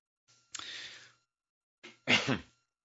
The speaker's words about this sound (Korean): 아, 저는 거짓말 할 때는 입에 침이 마르지를 않는데 이렇게 진실을 얘기할 때는 목이 좀 매네요. 기침 나고 긴장해서 그래요.